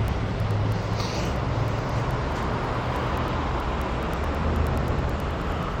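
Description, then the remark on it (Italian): A heavy vehicle such as a city bus rumbles by a bus stop, its deep engine drone and broad road noise steady and loud throughout, with no voices. “Qui cosa sta passando adesso? 36 no, non so neanche dove mi porta”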